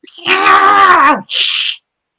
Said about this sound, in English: Oh, my! Can you hear that? My cats are fighting under the under my desk.